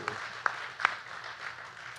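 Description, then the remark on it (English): Audience applause for a birthday boy in the audience: a soft, steady wash of many hands clapping, with a couple of sharper, louder claps standing out early on. No one speaks over it. “Give right. him a big round of applause.”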